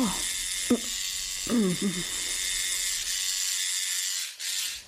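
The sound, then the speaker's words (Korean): A tattoo coil machine, set to low voltage, buzzes steadily throughout with a bright, high electric whine as its needle tattoos an elderly woman's chest below the collarbone. A couple of short vocal murmurs surface early on, and the buzz dips briefly just before the end. “머신이 돌아가는 소리가 들리고 바늘이 피부에 빠르게 박히는 느낌이 조금씩 전달되었다.”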